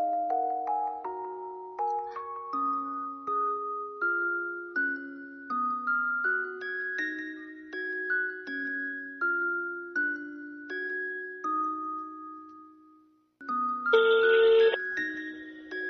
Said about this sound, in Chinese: 嗯，好的，让我拨通这个电话。